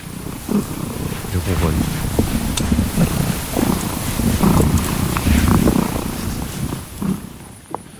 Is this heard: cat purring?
yes